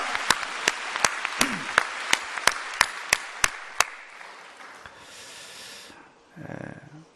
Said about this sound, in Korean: 응답하신 하나님께 큰 박수로 영광을 돌리겠습니다. 할렐루야!